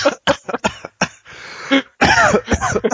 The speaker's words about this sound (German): da hat er sich verschluckt.